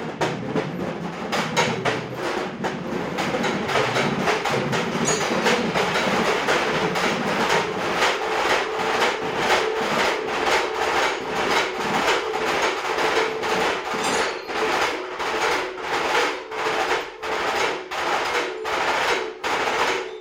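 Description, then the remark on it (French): Loud, bright metallic crashes of cymbals resting on timpani, struck in a fast, steady mechanical rhythm over a continuous ringing wash, with a deeper drum rumble early on and no voices. “où la fin on devient sur des choses un peu plus agressives, plus dures, avec des sonorités de, de cymbales euh, très très puissantes posées sur les timbales. Donc ça donne un son très métallique,”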